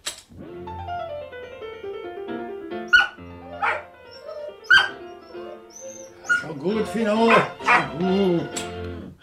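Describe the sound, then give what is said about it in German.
A dog, Fino, howls in long, wavering wails over piano music from a record of Mozart's concerto for three pianos, loud, with a few sharp yips between phrases; a voice briefly speaks near the end. “Ich habe Fino noch nie so jaulen hören.”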